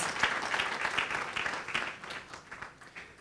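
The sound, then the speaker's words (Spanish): An audience at a bilingual Spanish-English church service applauds steadily for the King of Kings and Lord of Lords, a dense wash of many hands clapping at an even level that thins slightly toward the end, with no voices standing out. “Y nosotros le damos un fuerte aplauso And we give that strong al Rey de applause Reyes the King of Kings y Señor de and Lord of Lords.”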